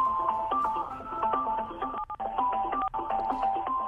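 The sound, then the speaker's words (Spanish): Txalaparta wooden percussion playing a fast, steady stream of struck notes, alternating between a few pitched tones in a lively interlocking rhythm, with brief pauses near the middle. “que es precisamente este sonido maravilloso de la chalaparta, ¿eh?”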